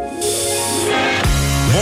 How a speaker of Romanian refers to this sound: Dă cu spray la subțiorii.